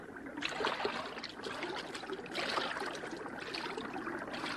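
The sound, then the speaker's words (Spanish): Water sloshes and splashes steadily as someone wades into a river among reeds to reach something floating there, with two stronger surges of churning water, fairly loud, and no voices. “Bueno, métete en el agua y averigua lo que es.”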